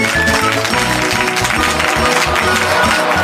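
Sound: audience clapping hands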